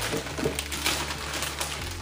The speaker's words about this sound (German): So, Tüte auf.